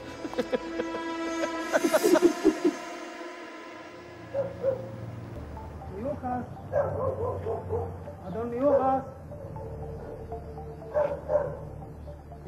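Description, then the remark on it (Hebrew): A dog barks and yips in short bursts, loudest near the start, then continues intermittently while a person speaks over it, during a mail delivery on Frankel Street. “כן, העניין הזה של כלבים ודברים, זה עניין רציני.”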